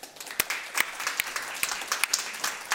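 An audience claps together in a steady patter of many hands, with sharper individual claps standing out at irregular moments over the continuous crackle of applause.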